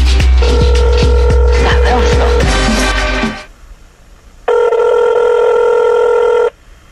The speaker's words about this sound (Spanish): Así es de que suena el teléfono.